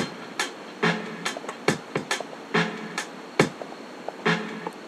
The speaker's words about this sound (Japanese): ちょっと遅らせてやる音であとこのハットこのシャッカーってこのハットに重ねて鳴らすのがこれね